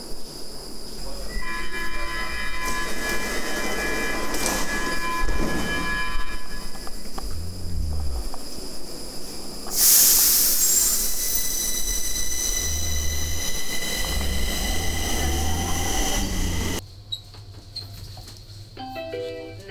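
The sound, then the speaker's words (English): A subway train rolls into Skogskyrkogården subway station with a steady mechanical roar, a sharp hiss of air brakes midway, and tonal whines fading as it slows and stops, with a brief electronic chime at the end. “so we have arrived here at the subway station now of Skogskyrkogården.”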